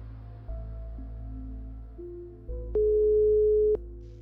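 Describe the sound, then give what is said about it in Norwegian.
A telephone ringback tone plays while a journalist's call to a girl's father connects: steady electronic beeps that step between pitches over a low hum, with a couple of sharp clicks near the end. No one speaks. “Vi klarer senere å finne ut hvem som er faren til denne jenta, og ringer ham for å høre om han kanskje kan hjelpe oss å belyse denne saken.”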